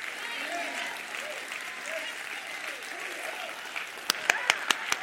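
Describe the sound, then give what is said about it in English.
An audience applauds in a steady, dense wash of clapping, with a few sharp, louder individual claps standing out near the end, while a voice murmurs faintly underneath. “Come on, I'll let you clap.”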